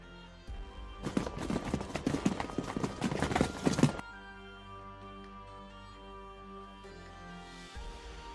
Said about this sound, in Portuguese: A energia de Bogan é tão forte que você emana que você começa a escutar passos vindo na sua direção.